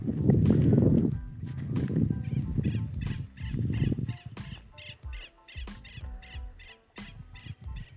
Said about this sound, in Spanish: Y ahí están las aves. Y ahí está el canto.